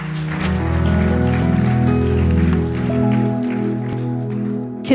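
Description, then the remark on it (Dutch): A church audience applauds the band, a dense patter of clapping over a held, ringing musical chord. The clapping thins out toward the end as the chord lingers. “Give these guys a hand. Geef ze een applaus.”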